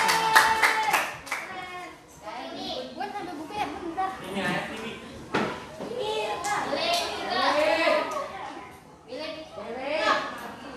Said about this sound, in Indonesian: Tepuk tangan buat Afifa